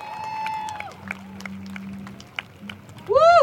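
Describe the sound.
Scattered claps and crowd noise from a gathering, rising at the end into a loud, high whooping cheer from one voice over the general hubbub.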